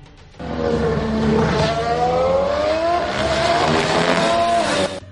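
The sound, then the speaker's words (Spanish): A Red Bull Formula One car roars past over a kerb, its loud, high-pitched engine whine climbing steadily in pitch for several seconds before cutting off abruptly. No one speaks. “es un vídeo cortito de una de las pasadas de un Red Bull cuando pasa por encima de un piano, que yo os lo he comentado a David, que la verdad es que se escucha mm, de maravilla.”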